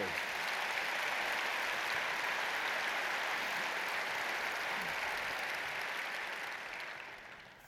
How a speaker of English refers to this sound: 4,000, yeah, you should clap for yourself, absolutely.